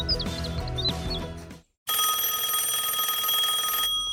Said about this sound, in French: Dring dring